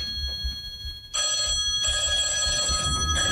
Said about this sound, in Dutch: Oh, er gaat, gaat even een telefoon.